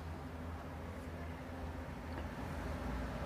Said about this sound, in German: Es herrscht etwas Verkehr auf der Straße.